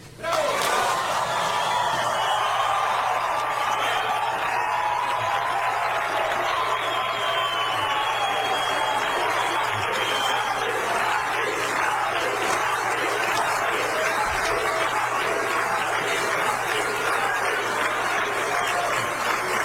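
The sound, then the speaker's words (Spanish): A large crowd applauds and cheers continuously, a dense, loud wash of clapping and shouting voices that holds steady for the whole stretch without letting up. “Mucho ruido también, muchos aplausos.”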